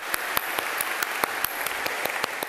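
The wife, family and admirers of a late songwriter applaud steadily at his funeral ceremony at the Atatürk Cultural Center, where his Turkish-flag-draped coffin was brought, a dense wash of clapping with sharper, louder claps standing out at a regular, almost rhythmic pace. No one speaks over it.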